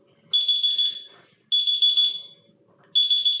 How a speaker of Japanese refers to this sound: えっと、12時ぴったりにアラームをかけます。アラームをね、かけまして、えー、収録中に、